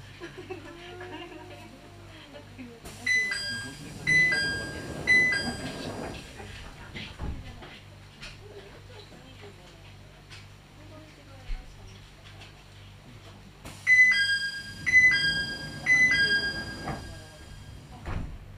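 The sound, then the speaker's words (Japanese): A cable car's doors close with a bright repeating electronic chime, followed by thuds and rattling over a steady low mechanical hum; the chime sounds again later as the car moves off. “このケーブルカーは山下りゴール行きでございますまもなくドアが閉まりますご注意ください”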